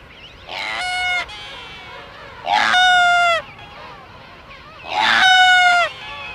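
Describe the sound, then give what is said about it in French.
A sooty albatross gives three loud, drawn-out braying calls at the top of island cliffs, each about a second long and evenly spaced, clear over a quiet windy background, with no talking. “Ce sont des albatros, les albatros fuligineux.”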